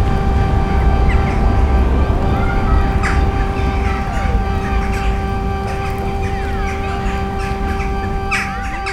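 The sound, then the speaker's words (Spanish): Crows call intermittently, perching on the walls at the entrance to the convent of San Agustín in Segovia, Castilla y León, at 6 pm on an October autumn evening; a few short harsh caws rise over a steady droning hum and a dense rumble of outdoor background noise. “Son los nombres de los caídos, los testigos de estos sonidos, y los cuervos se posan sobre sus muros.”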